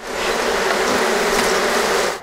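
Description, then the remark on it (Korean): A dense, steady swarm of honeybees buzzes around a beekeeper tending them in West Virginia, a thick droning hum with no voices, holding level for about two seconds before cutting off. “능숙한 손놀림으로 벌을 치는”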